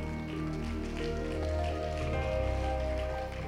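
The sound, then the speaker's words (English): An audience claps its hands on the preacher's cue in a dense, steady patter that sounds almost like heavy rain, with sustained musical tones held underneath throughout. “You got to know how that when even that doesn't make sense, you got to learn how to clap your hands. That was your cue.”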